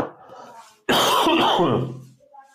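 A single loud cough bursts out suddenly after a brief quiet moment, rough and throaty, trailing off over about a second into silence.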